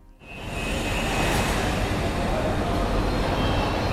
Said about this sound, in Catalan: Aquesta és més difícil, o no? És una estació de trens.